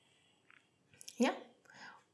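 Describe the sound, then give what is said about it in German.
A yoga block that feet were resting on tips over and lands on the floor with a single dull, muted knock, amid faint breathy voice sounds. “Und du hast wahrscheinlich gerade dieses Klopfen im Hintergrund gehört.”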